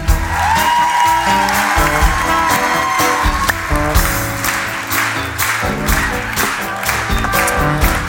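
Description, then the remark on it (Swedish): An audience claps steadily and loudly throughout for three men called up onto the stage, a dense wash of applause over a thumping band playing underneath, with no one speaking. “Så, en stor applåd för tre härliga killar.”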